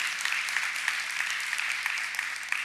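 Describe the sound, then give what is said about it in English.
A church crowd applauds steadily for a pastor's thirty-five years at the church, a dense wash of many hands clapping at a constant level with scattered sharper claps standing out, no voices clearly heard over it. “That, that deserves a round of applause right there.”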